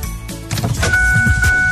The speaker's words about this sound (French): Lorsque vous tournez la clé de votre auto neuve chez Saint-Nicolas Nissan, vous ne faites pas que partir la voiture, vous démarrez l'aventure.